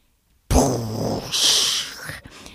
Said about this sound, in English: This is the bomb. This is the sound of the Woj bomb. That's Adrian Wojnarowski, the godfather of the NBA.